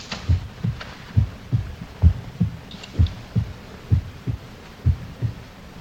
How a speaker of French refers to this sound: Et c'est leur cœur que j'entends. Leur cœur qui bat. Qui ne cesse de battre.